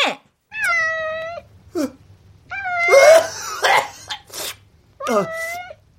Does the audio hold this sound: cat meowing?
yes